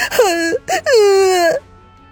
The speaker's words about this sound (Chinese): 两个小孩子哭闹不停。